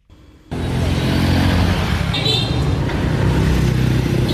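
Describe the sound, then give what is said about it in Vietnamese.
Dense street traffic at a high school gate, with students' motorbike engines humming and droning, a steady loud wash of vehicle noise starting abruptly after a brief quiet moment, with faint voices mixed in. “Tại một số cổng trường trung học phổ thông, chúng ta không khó để bắt gặp một số học sinh chưa đủ tuổi cấp giấy phép lái xe điều khiển xe máy đến trường Thậm chí nhiều em không đội mũ bảo hiểm, dàn hàng 2, hàng 3, phóng xe bạt mạng trên phố.”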